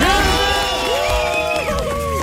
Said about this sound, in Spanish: queremos que todo el público le dé un fuerte aplauso a …